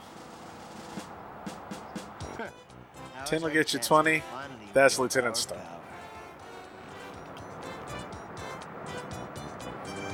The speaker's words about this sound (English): We've been here a couple of hours and not one car's come by. oh, there's a car. Here comes one now.